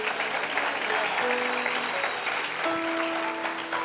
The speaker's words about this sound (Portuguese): Tem algum crente aqui, gente? Pelo amor de Deus, aplauda mais forte.